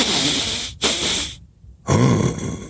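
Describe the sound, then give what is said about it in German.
A voice imitates the loud, rasping snoring of an ogre asleep on a rock, snoring like a roaring storm wind. Breathy, hissing inhales and exhales come in rough bursts, then a brief pause, then a deeper, growling snore. “Als der Menschenfresser an diesen Felsen kam, setzte er sich darauf, um ein wenig zu ruhen weil er müde geworden war, und bald schlief er ein und schnarchte, dass es war, als brause ein Sturmwind.”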